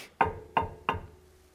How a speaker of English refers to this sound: Knock